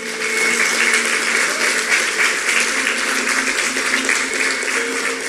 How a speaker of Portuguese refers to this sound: Vamos uma salva de palmas para o nosso Deus.